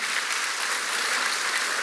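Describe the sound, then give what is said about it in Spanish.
A crowd in a church claps for couples who serve there, a dense, even wash of applause that holds at a constant loud level for about two seconds, with no voices standing out. “Un aplauso para estas hermosas parejas que sirven al Señor en la iglesia, ¿verdad?”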